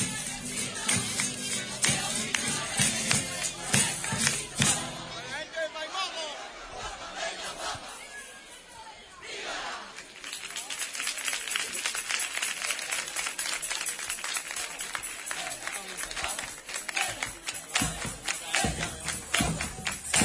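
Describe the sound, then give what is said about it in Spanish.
A large street crowd of a religious brotherhood chants "Huelva, Huelva" and cheers loudly in unison, with shouting, voices rising in waves and dense background chatter, a brief lull midway before the roar returns. “La hermandad de la Cristina gritando, huelva, huelva, huelva.”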